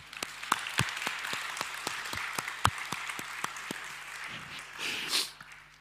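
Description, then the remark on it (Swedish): An audience applauds the interpreters, many hands clapping in a dense, even patter with sharper individual claps standing out, holding at moderate loudness for several seconds before thinning out. “En applåd för våra tolkar hörni.”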